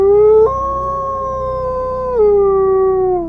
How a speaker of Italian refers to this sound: C'è un branco, una torma di cani che sta latrando. Sempre più forte, si sta avvicinando. C'è un branco di cani che sta ululando a una luna che non c'è.